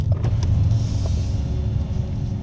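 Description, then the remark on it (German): Electric car sunshades closing as a relax mode is activated, darkening the cabin: a steady motor hum over a low rumble inside the cabin, with a few small creaks and clicks as the mechanism moves. No one speaks. “Genau, Sonnenblenden sind, sind äh, äh, aktiviert worden.”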